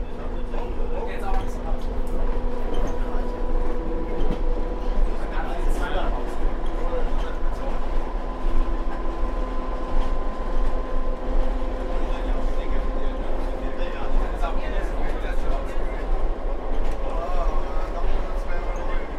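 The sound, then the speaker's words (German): A narrow-gauge train, the longest narrow-gauge line in the Nordic region, rolls steadily along its rails, a constant rumble with a droning hum, heard from inside the full carriage where all seats are taken and some passengers stand, while voices murmur faintly in the background. “Der Zug hat sich gefüllt, alle Plätze sind besetzt und manche stehen.”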